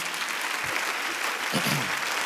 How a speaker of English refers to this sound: Clap your hands unto the Lord tonight.